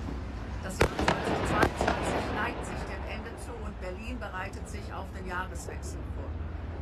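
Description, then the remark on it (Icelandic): New Year's Eve fireworks bang repeatedly outdoors in Berlin, recorded on a mobile phone, with sharp explosions early on and a continuous crackle of bursts amid smoke, while crowd voices and whistling rockets fill the background. “Ávarp landvarnaráþarans var tekið upp á farsíma og teatorki í Berlín þar sem ljósblossar leftruðu og sprengingar hvaðu við í Rekmekki.”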